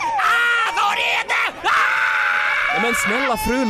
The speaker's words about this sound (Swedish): Ursäkta, kan du hålla i min dotter medan jag skriker lite? Skriker? Va? Okej. Var är det där tåghelvetet?